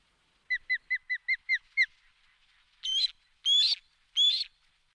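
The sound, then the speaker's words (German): An osprey calls at its nest: a quick run of seven short, high whistled chirps, then three longer, harsher squealing cries. Clear, with no talking. “Vielleicht kann man auch noch mal das Rufen eines Adlers hören. So zum Beispiel.”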